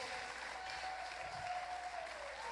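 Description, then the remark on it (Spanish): An audience claps loudly and steadily for the Lord, a dense wash of overlapping applause that holds at full strength for a few seconds, with a faint sustained tone running underneath. “Así que yo quiero que le aplaude bien fuerte al Señor porque quiero profetizarle sobre alguien”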